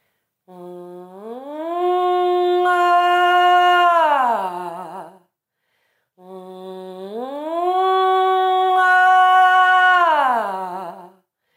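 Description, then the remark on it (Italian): A solo voice sings two identical siren glides as a vocal exercise, each starting as a low closed-mouth "mm" hum, sliding upward and opening into a bright sustained "A" vowel before dipping back down, with a brief pause between. “Una volta che ti sarai allenato con queste piccole sirene, unirai alla sirena, quindi questo mm, la vocale A, quindi andrai ad aprire il suono, più o meno in questo modo.”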